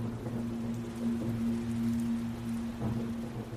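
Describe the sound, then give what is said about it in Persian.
Steady rain falls with a continuous hiss and soft patter, even throughout, over a low constant hum. No one speaks. The rain falls on soot-covered boxwood shrubs in front of a bank. “همینطور لخت و بیهس خیره شده بودم به شمشادای دود گرفته ای روبروی بانک انگار یه لایه چند میلیمتری کسافت و آلودگی رو همه برگاش نشسته بود هرچی بارون بیشتر میومد کسیفی این شمشادا هم کمتر میشد”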